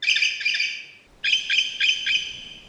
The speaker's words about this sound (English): So the grey currawong is what we call the clinking currawong, and that's found on the mainland as well. And it sounds like this.